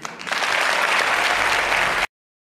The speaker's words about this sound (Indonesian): Boleh tepuk tangan, boleh.